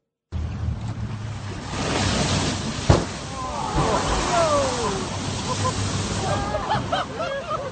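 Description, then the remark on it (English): Ocean surf rushes and washes steadily against a harbor shoreline on the wild, remote west coast of Tasmania, Australia, where whales were found stranded; a continuous roar with a sharp thud near the middle and faint high chirping calls drifting over the wash. “Well, waves there a day after 230 whales were found stranded on the wild and remote west coast of Australia's island state of Tasmania.”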